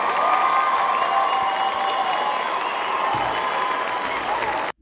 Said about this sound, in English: Guys, we just surpassed two days ago 900 followers on TikTok. Let's give a round of applause for that.